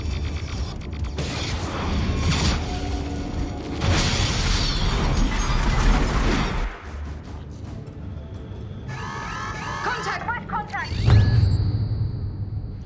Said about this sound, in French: Terminator 2 avec les, les robots qui avancent et la guerre des machines